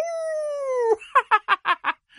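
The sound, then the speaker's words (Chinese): A voice imitates the howl of a big bad wolf in a children's story: a single sustained, slightly falling note lasting about a second, followed by five quick, rhythmic, laugh-like bursts. “大野狼要吃的肚子圆鼓鼓。嗷！”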